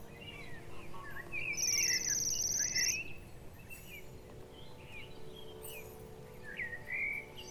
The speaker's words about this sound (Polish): jednym z ptaków, który przylatuje do Polski zimą, e, jest jemiołuszka. Jemiołuszka, którą wszyscy znamy, przynajmniej z nazwy, mm, z wyglądu jest charakterystyczna, bo ma czubek i jest pękata.